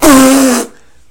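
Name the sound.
loud fart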